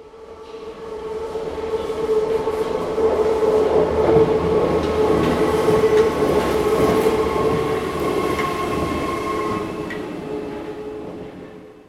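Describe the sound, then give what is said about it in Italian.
A train rolls steadily along the rails, a continuous loud rumble with a sustained tonal hum and faint metallic rattles, swelling slightly then easing off near the end. No one speaks. “In questo esercizio proviamo ad ascoltare il suono prodotto dal treno come puro suono, senza alcuna interpretazione.”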